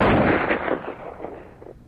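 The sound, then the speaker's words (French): A loud gunshot blast from a revolver, its sharp crack giving way to a rolling, echoing rumble that fades over about two seconds, with no voices. “Dans la nuit du 27 au 28 décembre 1983, il met fin à ses jours avec le revolver de sa femme.”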